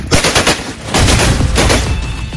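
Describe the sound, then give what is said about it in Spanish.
Loud, rapid gunfire from a high-powered firearm made for shooting at a car or a helicopter, the sharp cracks coming in quick overlapping bursts that barely pause across the whole stretch, with no voices. “Esto es para dispararle a un coche, a un helicóptero.”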